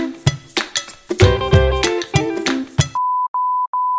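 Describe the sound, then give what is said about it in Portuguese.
A phone call drops while recording continues: about three seconds of garbled, clattering line noise cut off abruptly, followed by three steady, mid-pitched disconnect beeps in quick succession. “você escutar como que acontece quando uma ligação falha e a gente continua gravando”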